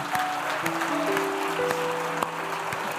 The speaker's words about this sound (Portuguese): E nós vamos aplaudir Jesus nessa noite.